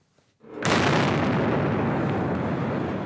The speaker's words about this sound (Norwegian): Den første bomben gikk av like ved målområdet da mange mosjonsløpere var i ferd med å avslutte Boston Marathon.